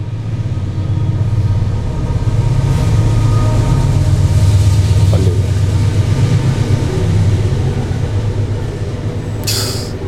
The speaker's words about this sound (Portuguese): Olha o trem passando. Ei, beleza. Será que vai atrapalhar?